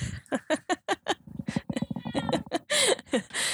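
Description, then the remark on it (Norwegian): A cat meows in a rapid series of short, tonal cries, ending with a few louder, drawn-out meows. No one is talking. “Og nå lurer det kom en katt!”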